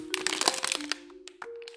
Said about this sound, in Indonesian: ya sengaja sih kayak ngemainin botol yang suaranya begini tadi